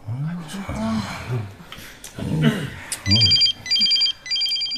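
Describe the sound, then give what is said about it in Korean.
A mobile phone that was not set to vibrate rings during a meeting in three loud, electronic bursts with short gaps between them, cutting in right after several people finish talking. “아, 누가 회의 중에 진동도 안 해놨어?”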